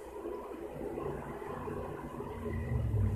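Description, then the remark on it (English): A steady, muffled rumble of city-centre street traffic drifts in from outside in the early hours of the morning, low and continuous with a faint engine drone swelling slightly toward the end; no one speaks. “You can hear the street, can't you, outside?”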